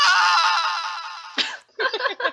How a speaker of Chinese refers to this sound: 对，然后又再度发出了那个尖叫声。 对，我们来放一下那个值得怀念的尖叫。